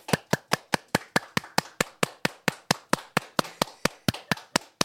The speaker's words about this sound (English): Why are you clapping that? mate, because it's an it's an achievement.